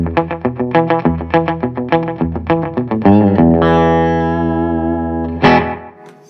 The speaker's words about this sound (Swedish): Eh, sen så har jag mitt eh, Deep Blue Delay. Mm. Jag har inställt ungefär så som ett ja. litet slapback.